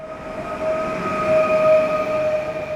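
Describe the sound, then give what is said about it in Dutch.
A train rumbles past on the rails with a steady, moderately loud roar and a sustained high metallic squeal or whine running throughout, no voices present. “In de afgelopen 200 jaar zijn er steeds nieuwe treinen uitgevonden en ook weer verdwenen.”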